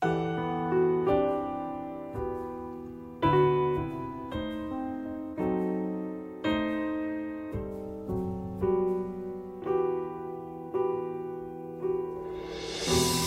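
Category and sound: flamenco song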